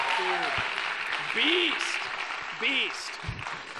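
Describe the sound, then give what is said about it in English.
A large crowd claps steadily and loudly throughout, with scattered whoops and cheering voices rising above the dense applause, as the audience welcomes a guest speaker to the stage. “Make some noise”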